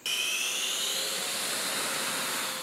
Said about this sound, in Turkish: Rus jetleri Kırım yakınlarında Amerikan uçaklarını takip etti, görüntüleri paylaştı.